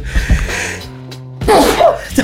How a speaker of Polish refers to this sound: Eee, ja zaraz kichnę.